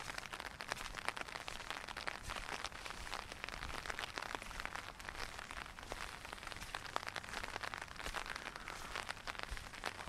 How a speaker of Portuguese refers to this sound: Agora ninguém ousa sair essa hora da manhã na chuva.